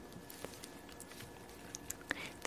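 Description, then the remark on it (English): Playing cards being shuffled by a fire, a quiet run of soft papery flicks and light clicks in an irregular rhythm, with a few sharper snaps near the end and no voices. “So let's get warmed up by the fire and I'll just shuffle some cards”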